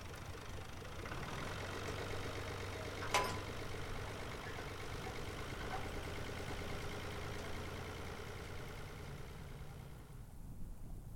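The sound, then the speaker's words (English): A truck engine rumbles steadily for the whole stretch as Larry's truck heads out down the road, with one sharp click early on and the drone easing off slightly at the very end. “After the two of them made breakfast and drank some more of that gourmet coffee shit, Larry got into his truck and headed out down the road and waved to the stranger on the porch.”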